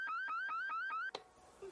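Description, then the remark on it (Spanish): A store security alarm blares in quick, repeated rising electronic whoops, about five in a row, loud, then stops abruptly with a sharp click and near silence. “La alarma debe estar mal.”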